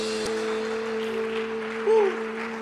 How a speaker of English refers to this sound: If you believe that today, that Jesus loves you and his word is true, come on, give him a hand clap of praise.